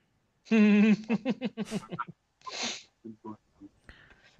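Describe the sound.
A close, loud sneeze: a drawn-out voiced intake and a rapid string of gasping catches build up to one sharp, breathy burst, followed by a few faint trailing sounds.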